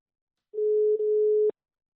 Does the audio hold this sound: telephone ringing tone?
yes